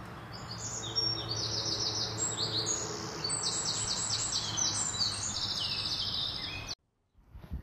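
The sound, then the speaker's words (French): Several birds sing at once in a dense, continuous chorus of high, rapid chirps and trills over a low steady hum, stopping abruptly near the end, heard during an outing of an ornithology group at a managed natural site. “Pour des raisons protocolaires, je ne peux pas parler plus fort au risque d'effrayer les oiseaux.”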